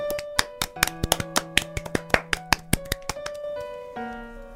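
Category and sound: crowd, group applause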